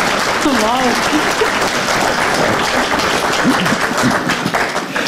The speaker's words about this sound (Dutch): Ik heb die wedstrijd gewonnen omdat ik de meeste supporters mee had. Het hardste ah, applaus, het applaus.